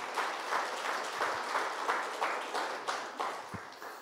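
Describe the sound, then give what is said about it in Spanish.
A room full of people applauds for the Lord in the morning, dense overlapping claps forming a continuous wash of sound with slight rhythmic swells, sustained throughout without speech. “Le damos un buen aplauso al Señor en esta mañana.”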